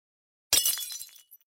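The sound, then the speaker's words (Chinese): A porcelain bottle of Chinese herbal medicine drops from a hand and smashes on the floor with a sharp, bright crash, followed by a second of scattering, tinkling shards that trail off into a last small clink. “瓷瓶从我的手中摔落，在地上砸了个粉碎。”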